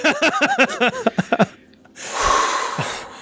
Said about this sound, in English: I gotta take a breath now. Deep breath.